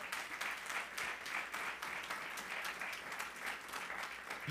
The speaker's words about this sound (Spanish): Pero, pero yo digo, dale un aplauso al Señor.